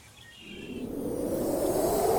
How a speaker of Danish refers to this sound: En vind løb gennem skoven, og der lød en visken i bladene.